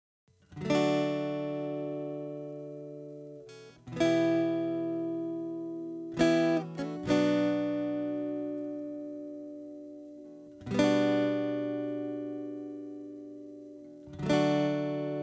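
A pop song's instrumental intro: rich, sustained keyboard chords struck every few seconds, each ringing out and slowly fading before the next, with a quick double hit midway and no singing.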